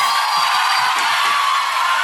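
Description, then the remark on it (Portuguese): A large crowd cheers and claps in a loud, steady roar of applause, with scattered whoops and shouts rising from the dense wash of noise throughout. “Muito barulho, muito barulho, muitas palmas.”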